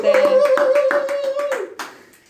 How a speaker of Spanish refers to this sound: Un aplauso para él desde acá, desde San Luis, para Corrientes.